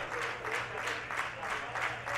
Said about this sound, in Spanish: Escuchamos la ovación del Álvarez Claro.